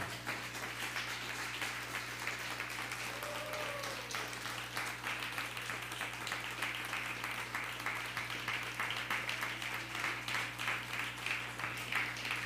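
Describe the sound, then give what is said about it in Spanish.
A religious gathering applauds God, the Eternal, steadily for several seconds, a dense, continuous patter of many hands clapping at an even level without fading, with no one speaking over it. “Dale un fuerte aplauso al eterno.”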